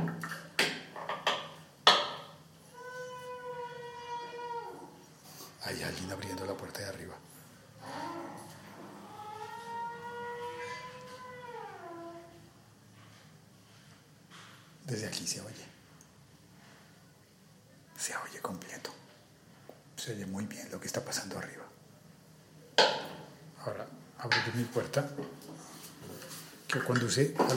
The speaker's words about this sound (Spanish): Sistema similar con un garfio que, lo, que mantiene la puerta abierta. Si lo muevo,